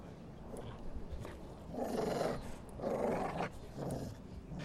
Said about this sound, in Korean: 개가 두 번 으르렁거리고 또 두어 번 돌진을 하자 전혀 악의가 없는 행동이었음에도 곧 의사의 아내가 누울 만한 자리가 생겼다.